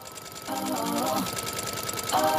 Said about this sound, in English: She hosts a podcast called Stitch Please, and Quick aside, she made her own theme music using the rhythm of her sewing machine.